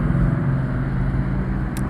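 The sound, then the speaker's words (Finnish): A bus engine rumbles steadily, a deep continuous drone with no talking, broken only by a brief sharp hiss near the end. “Bussi tuli.”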